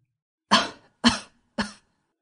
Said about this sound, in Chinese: 还没等他有所反应，就听到他压抑的咳嗽声。